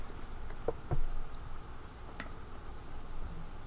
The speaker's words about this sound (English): Oh, there we go. There's my sound. There it is. Oh, I knocked everything over.